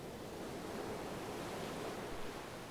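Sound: ocean waves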